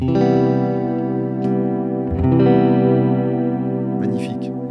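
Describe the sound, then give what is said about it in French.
Sustained electric guitar chords ring out through a Skylar reverb placed in an effects loop, with a wide, washy reverb tail, strummed again around the middle and fading with lingering echoes near the end, loud. “On va se mettre un petit, une petite reverb, que j'ai viré pour faire la leçon précédente, voilà, qui était une rythmique.”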